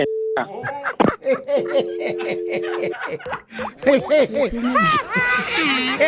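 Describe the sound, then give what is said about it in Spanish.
A steady electronic telephone busy tone after a call hangs up sounds briefly and then returns for over a second, partly buried under animated laughter and excited voices. “¡Ey, se colgó!”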